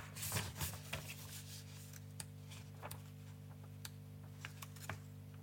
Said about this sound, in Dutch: Je hoort mij even door het werkboek heen gaan. Ja, blaadjes sla ik steeds over.